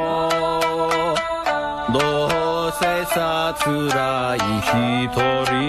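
A Japanese song plays at steady volume, a sung melody gliding between held notes over crisp, regular percussion hits and bright accompaniment.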